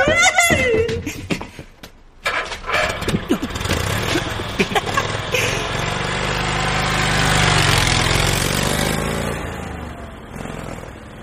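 A scooter, parked crookedly in the corner of a fried chicken restaurant, idles with a steady low rumble that swells slightly toward the middle and holds, preceded by a brief burst of voice-like laughter at the start.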